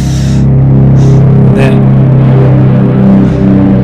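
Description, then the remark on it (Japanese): A low-flying airplane near the Nairobi airport in Kenya roars past overhead, a loud, steady low-pitched droning rumble that fills the whole stretch, with a brief spoken syllable barely cutting through. “すごい飛行機飛んでったあ飛行機の音これブーって聞こえるわブーンっていうのはこれ飛行機の音ですねそんな近いナイロビの空港ってや、なんか結構低め派と飛んでること多いっすね。”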